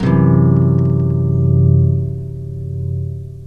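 A single strummed guitar chord, a D major, rings out loud and full, its bass-heavy tones sustaining and slowly fading over a few seconds with no talking.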